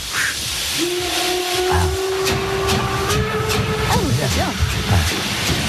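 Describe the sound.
A voice imitates a steam train: a sustained whistle-like tone over continuous breathy hissing and chuffing, ending with rising vocal swoops, loud.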